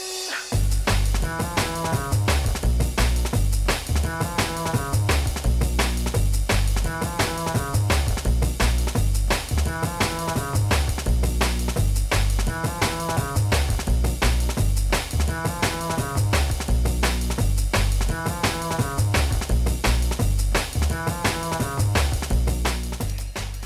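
A drum and bass track plays loud and continuous, with rapid breakbeat drums, a deep rolling bass line and repeating melodic phrases, no voices.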